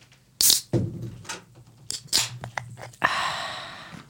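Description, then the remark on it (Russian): Clean well water pours and bubbles, starting with a few short splashy bursts, then settling into a steady, fizzing gush over the last second. Moderately loud, with no talking. “Как красиво пузырится. Наша чистая колодезная водичка.”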